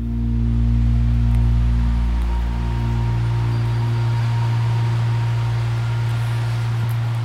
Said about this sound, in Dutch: We staan in Breda bij een groot gebouw. Het is regenachtig, het is koud, het waait. Ik hoor de auto's. We zitten vlak bij de snelweg hier.